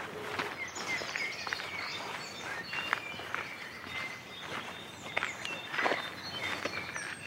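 Small birds chirp and tweet in quick, overlapping bursts outdoors over a steady crunchy background that sounds like footsteps on a path. No one speaks.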